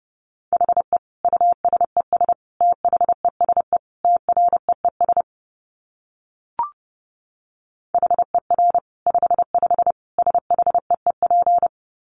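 Rapid Morse code beeps at about 30 words per minute: a steady mid-pitched tone keyed on and off in quick dots and dashes, two long bursts separated by a pause and a brief click.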